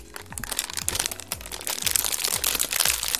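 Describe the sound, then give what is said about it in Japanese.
Crinkly plastic wrapping of a nine-biscuit package of Tim Tam Sunshine Coast Strawberry chocolate biscuits being pulled open, a steady run of rustling and crackling with sharp little crunches, fairly loud and continuous for a few seconds, with no voices. “えこのストロベリーこう、サンシャインコーストストロベリーですか、えこれをちょっと開けてみたいと思います。”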